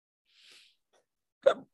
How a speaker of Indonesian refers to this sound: Mungkin sebelum ini cegukan menyerang gua makin parah.